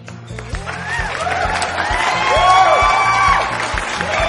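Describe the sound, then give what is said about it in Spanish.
A crowd applauds and cheers loudly for people celebrating their birthdays, with whoops and shouting voices rising over steady clapping and a thumping low beat underneath, lasting throughout. “Vamos a darle un fuerte aplauso a nuestros cumpleañeros.”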